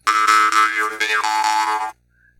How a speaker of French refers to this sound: Sur l'autre guimbarde.